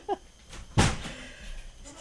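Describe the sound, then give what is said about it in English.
A door shuts with one solid, fairly loud thud and a short rattle, followed by quiet room tone. A brief faint vocal sound comes just before it. “you can just shut the door and they can stay in there all they want.”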